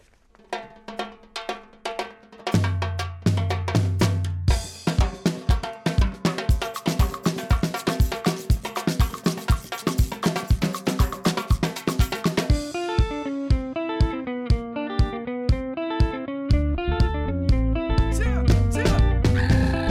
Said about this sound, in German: ah, lassen wir das Musikli.